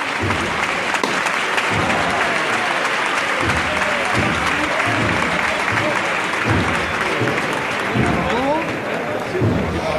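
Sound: applause from street crowd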